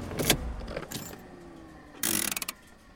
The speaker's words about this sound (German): Lola schaltet den Motor aus.